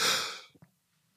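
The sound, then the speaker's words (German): A single sneeze: a loud, breathy burst of noise that fades over half a second, followed by two brief, soft sniffs or mouth sounds, then quiet. “ich muss niesen.”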